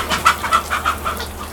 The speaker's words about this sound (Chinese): 我们听现在听到里面鸡是在打架吗？ 没错。 母鸡也会打架，是不是？我去录一下母鸡打架的声音。哇，里面真的叫鸡飞，没有狗跳，那就飞来飞去